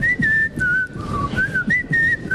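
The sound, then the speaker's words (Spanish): A person whistles a short melodic tune, the pitch gliding between a few sustained notes in a steady, clear line, fairly loud, with no talking. “La gente que todo el día chifla.”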